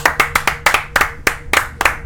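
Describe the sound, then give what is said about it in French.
An audience claps for a singing duo in a steady, even rhythm, sharp bright slaps landing about four times a second, fairly loud and with no voices over them. “Heureusement qu'on applaudit un peu parce que on n'est jamais bien servi.”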